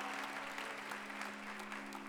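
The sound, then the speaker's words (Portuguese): An audience applauds steadily, a dense wash of many hands clapping at an even level throughout, with a faint low hum running underneath and no voices standing out. “Dê um brado a Ele e aplaudo aqui nesta casa e adoro.”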